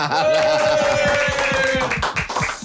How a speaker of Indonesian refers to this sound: Ya, tepuk tangan.